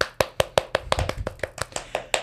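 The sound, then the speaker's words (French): Steady hand clapping, about a dozen sharp, bright claps at a quick even pace, with no talking. “Et on veut aussi faire une grosse main d'applaudissements”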